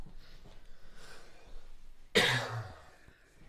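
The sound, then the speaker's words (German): A single sudden, explosive sneeze or cough bursts out loudly after a few seconds of low background murmur, then quickly fades into a brief breathy tail. “Gesundheit.”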